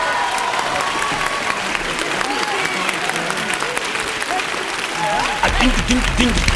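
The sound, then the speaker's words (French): A television studio audience applauds steadily to welcome a singer about to perform, with dense clapping for several seconds and a few voices and cheers rising over it before a louder swell near the end. “sous vos applaudissements.”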